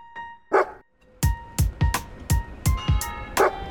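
A small dog in a café barks sharply in a quick, steady series of about seven or eight loud yaps, over a faint constant indoor hum with no talking.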